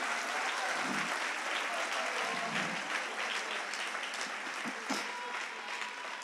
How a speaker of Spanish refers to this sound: Si le vas a dar un aplauso al Señor.